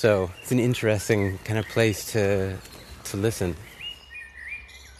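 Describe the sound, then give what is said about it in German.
A voice talks at first, then clear birdsong takes over in Berlin: several thin, whistled chirps and short tonal phrases from a bird, with a few fainter high tweets behind them. “Uh, ich höre überall Vögel.”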